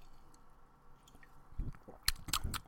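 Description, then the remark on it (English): Wet swallowing of plain, unflavored seltzer water: a quiet lull, then a few moist gulps and crackly mouth clicks in quick succession near the end, with no one talking. “I can hear it in your esophagus.”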